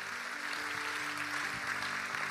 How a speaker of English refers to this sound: Come on, church, let's clap for everybody that said that. Come on, really clap for everybody that said that today.